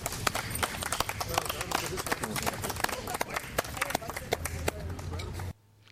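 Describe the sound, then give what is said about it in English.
An audience applauds steadily after a poetry reading at the Poets at Art Fest 5 Poetry Festival, a dense patter of many hands clapping at once for several seconds before it cuts off abruptly. “let's give her another hand.”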